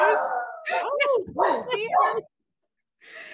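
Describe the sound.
A dog barks at a shadow in a quick run of yelping, pitch-bending bursts that rise and fall, loud for about two seconds, while a person exclaims over it; a short burst follows after a pause.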